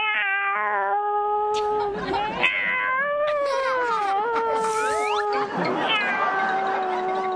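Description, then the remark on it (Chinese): A person imitates a cat caterwauling in heat: loud, drawn-out yowls that waver and bend in pitch, rising and falling in one continuous wailing stretch with no talking. “叫春”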